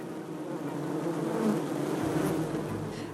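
A steady, dense drone of many honeybees buzzing together at a traditional Slovenian teaching beehouse with hives, painted hive front panels and a garden of honey plants, continuous, with no voices.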